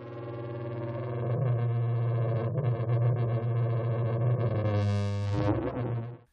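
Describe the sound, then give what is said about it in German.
A computer-generated sound of a 10-metre-long trumpet that does not really exist drones on a deep, steady low note with buzzy, brassy harmonics, swelling into a brighter, harsher blare near the end before cutting off. Loud throughout, no voices. “Und diese ist 10 Meter lang.”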